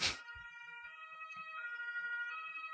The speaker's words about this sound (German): Krankenwagen übrigens